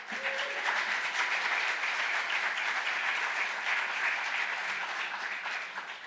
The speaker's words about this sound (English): If you guys want to invite her up with a clap.